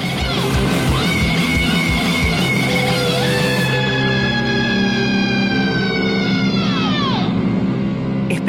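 A loud, noisy garage punk rock song: pounding drums and a dense wall of distortion, with wailing, siren-like sliding lines rising and falling over the top.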